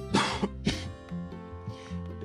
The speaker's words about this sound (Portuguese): perdão aí, você bocejando, eu tossindo.